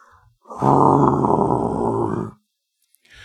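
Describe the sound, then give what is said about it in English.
A person vocally imitates the groan of a Leviathan heard in the distance while travelling through the ocean: one deep, rumbling, drawn-out growl lasting under two seconds, loud, then silence. “because the amount of times I've been going through the ocean, and I just hear, I just hear in the off of the distance just,”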